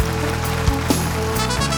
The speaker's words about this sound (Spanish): Wow, un aplauso por favor. Thank you, gracias